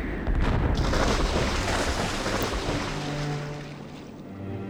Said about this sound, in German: Mit einer schlechten Animation fallen noch Teile ins Wasser.